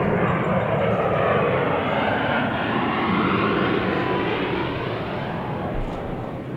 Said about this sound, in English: I know it sounds like I'm at an airport.